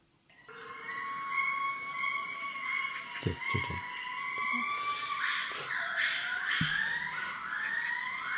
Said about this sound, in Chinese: 我特地去了一趟北洞，就是在他那个七点半刚开门后不久去的，然后我还拿手机录了一段那个长臂猿的那个叫声，我可以放一下吧